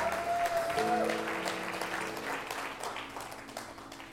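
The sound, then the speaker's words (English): A church audience applauds steadily during a service, with a brief high whoop near the start and a soft sustained tone beneath, the dense clapping gradually thinning and fading toward the end. “Come on, give them some more praise.”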